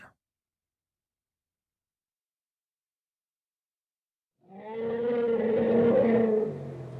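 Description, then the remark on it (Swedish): After a long stretch of silence, an elephant lets out a single loud, drawn-out trumpeting call, harsh and brassy, lasting a couple of seconds and ending abruptly. “En elefant. Det är det enda du hinner tänka innan du sakta öppnar dina ögon.”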